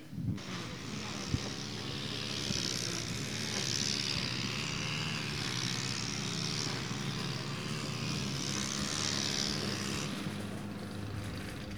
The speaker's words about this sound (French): Bah, je suis en train de débroussailler un carré pour que le tracteur puisse euh, venir tomber.